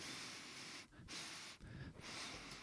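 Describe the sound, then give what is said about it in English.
Heavy breathing blasts right into the microphone in broad noisy bursts, two long breaths separated by brief pauses, loud and airy with no speech. “Pleased with the breathing.”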